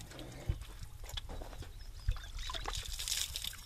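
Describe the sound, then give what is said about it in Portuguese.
Water trickles and splashes as a man in Safara washes coal soot from his face before lunch, a steady wet patter broken by a couple of soft slaps, with no voices. “A água que passa no rosto ganha o tom da fuligem.”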